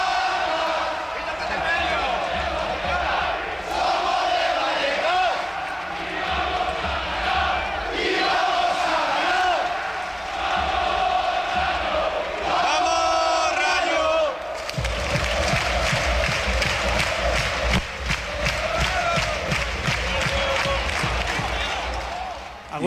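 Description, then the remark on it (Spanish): A large crowd of Rayo football supporters chants loudly and continuously in a stadium, voices blending into a rhythmic roar; midway the chant shifts to a sharper, faster beat with steady rhythmic clapping or stamping. “la afición del Rayo en su era reflexiva, o sea, la, cuando reflexiona las cosas.”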